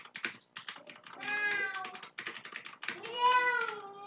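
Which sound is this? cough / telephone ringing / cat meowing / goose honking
cat meowing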